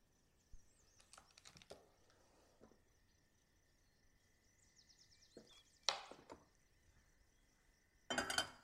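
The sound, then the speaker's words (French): A small saucepan is handled while 50 g of butter is weighed into it to be melted, giving irregular clanks, taps and scrapes separated by quiet pauses, with one sharper knock near the end and no talking. “Je commence par peser mon beurre, 50 g dans une petite casserole, et le mettre à fondre tout de suite.”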